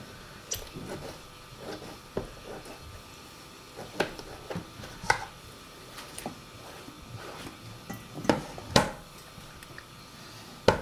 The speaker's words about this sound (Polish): Jak pewne słyszą Państwo po samym e, krojeniu, e, to też dźwięk, który przy tym krojeniu się, który słyszymy, świadczy o tym, że są to pomidory raczej z takich twardszych i właśnie bardziej mięsistych.